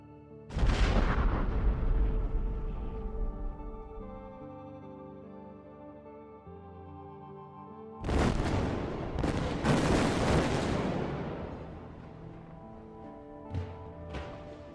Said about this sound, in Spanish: Israel realizó múltiples ataques aéreos en la franja de Gaza, mismos que impactaron en al menos dos sitios de producción de armas del grupo Hamas, lo que ocasionó fuertes explosiones tal y como se muestra en el siguiente video.